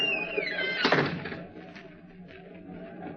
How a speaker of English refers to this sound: Shut the door behind you.